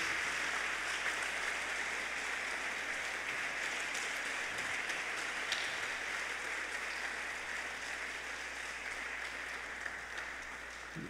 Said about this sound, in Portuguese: Podemos aplaudir ao nosso Deus. Amém.